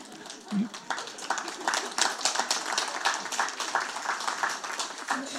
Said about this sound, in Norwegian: Ja, da klappa altfor tidlig igjen.